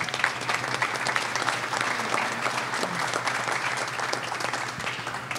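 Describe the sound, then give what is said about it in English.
An audience applauds steadily, a dense wash of many hands clapping at an even level for several seconds with no voices breaking through. “Clap it up.”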